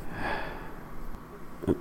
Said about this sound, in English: Sorry, I had to sneeze.